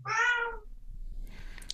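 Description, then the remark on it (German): A single loud, drawn-out cat meow, rising and falling in pitch, followed by a quieter stretch of faint rustling and background noise. “Die sitzt da und schreit mich die ganze Zeit an, weil sie dauernd, die, die will jetzt Attention oder irgendwie muss sie mitreden.”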